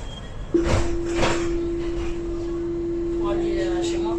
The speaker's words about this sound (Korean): 프랑스 파리에 도착했습니다. 자, 트램이 아주 잘 되어 있는 도시죠. 저는 지금 트램을 타고 11구에서 12구로 넘어가고 있습니다.